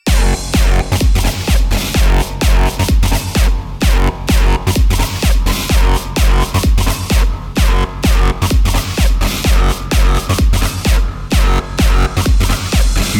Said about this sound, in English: Okay, now, we need some fat distortion. More distortion. I said more distortion. Time for another fat ass drop.